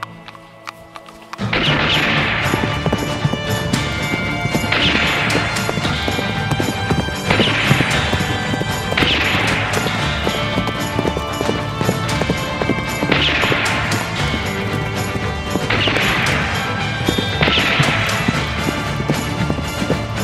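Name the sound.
horse hooves galloping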